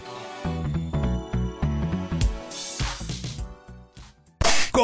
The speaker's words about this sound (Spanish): Ya van a escuchar castañuelas de fondo. Sí, este, cascabeles, ¿no?